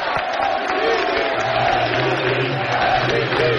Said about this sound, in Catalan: se'n va cap a dintre i que ensenyalen els àrbitres que falta estan... a favor de ah, Manresa ah, falta a favor del Manresa i el públic la celebra així un to irònic